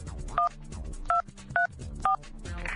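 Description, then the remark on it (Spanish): A cell phone number, Luisito Gómez Iba's, is dialed with DTMF keypad tones, five short evenly spaced beeps at a steady rhythm, clear over a low background hum. “A ver, márquenle a Luisito Gómez Iba al celular.”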